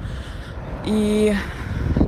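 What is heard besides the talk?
street ambience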